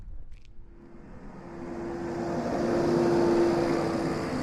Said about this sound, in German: bevor er auf seinem Motorrad zum nächsten Termin über den Kai davonbraust.